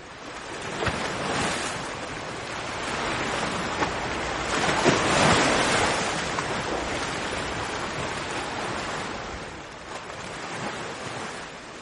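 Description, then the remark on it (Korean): Ocean waves break and wash onto a beach in a steady, hissing roar, swelling gently around the middle and easing near the end, with no voices. “푸른 파도가 부서지는 소리를 듣고 있어요.”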